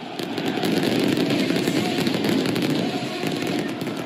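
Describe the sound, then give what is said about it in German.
Fireworks and flares crackle and pop continuously in a dense, steady barrage over a loud roar of noise in AEK Athens' new football stadium in Athens, Greece, with packed stands at the club's first match there, with no clear pauses across the whole stretch. “Griechenland, Athen im letzten Herbst, Bengalos, Feuerwerk, die Zuschauertribünen des Fußballstadions platzen aus allen Nähten.”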